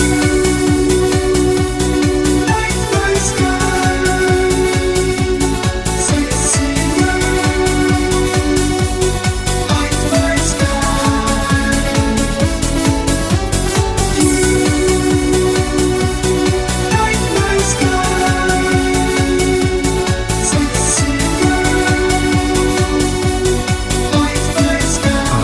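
Loud, dense electronic music plays continuously, with pulsing synthesizer bass, layered sustained synth chords and a steady driving beat, captured with the full, reverberant sound of a large live concert.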